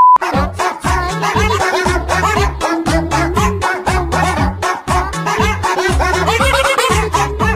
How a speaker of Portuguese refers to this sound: Tem uma outra parada muito idiota que eu racho o bico, cara, que eu não sei se vocês já viram. É um monte de remix que fazem com o latido de um cachorro.